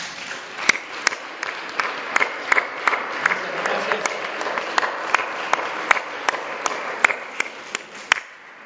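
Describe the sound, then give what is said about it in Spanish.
An audience applauds its invited guests steadily for several seconds, a dense wash of clapping with sharp individual claps popping out irregularly above the crowd, no voices over it. “Les damos un aplauso a nuestros invitados.”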